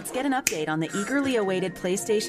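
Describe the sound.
A single sharp finger snap cracks out early on, a brief bright click set against continuous voiced, talk-like sounds that run through the whole clip.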